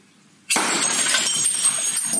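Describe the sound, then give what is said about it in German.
After a moment of quiet, a sudden sharp crack of glass as a sabre, its blade back slid along a sparkling wine bottle, strikes off the neck at its thinnest point; the neck flies far. A steady, loud fizzing rush of spraying wine follows. “Und dann führt man den Säbel mit der Rückseite der Klinge auf der Flasche entlang und schlägt oben gegen den Flaschenhals.”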